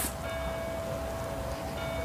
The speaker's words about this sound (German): Es läuten die Glocken.